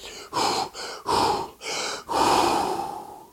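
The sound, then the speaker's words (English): Several deep, forceful breaths in a steady rhythm, taken before ice swimming under a one-meter layer of ice in Lapland, each a loud airy rush with short pauses between, the last one drawn out longer. “Okay, I did my breathing,”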